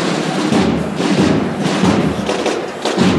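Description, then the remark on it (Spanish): Steady procession drum beats thud at a regular, unhurried pace as the Virgen de la Caridad arrives at night, sounding through a dense wash of crowd noise that stays loud the whole way. “Ha llegado la Virgen de la Calidad... a golpe de tambor.”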